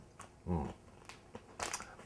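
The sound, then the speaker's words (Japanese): Crunching as a hard dried kelp snack (Hamakaze) with a mild salty taste is chewed, with several sharp crackly bites spread unevenly over two seconds and a brief low mouth thump between them. “これねこの浜風をねこれ結構ね硬いんですよ柔らかいやつもあるんですけどこれ硬いんですよだから、うん、おしゃぶりがいがあるんですよね、うん、これこれポリポリするの、”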